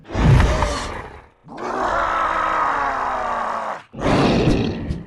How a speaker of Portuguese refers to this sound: A maioria dos efeitos sonoros foi criado pelo designer de sons Dane Trax e o restante foi feito inteiramente pela Ubisoft Montreal. E o som dos monstros de areia foi composto por vozes que murmuram para distanciar dos rugidos de mortos-vivos.